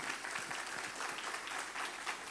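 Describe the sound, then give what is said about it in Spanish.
Steady applause from an audience, a dense patter of many hands clapping at an even, fairly loud level throughout, with no voices standing out. “y son ustedes los que se merecen un fuerte aplauso, así que gracias por estar aquí.”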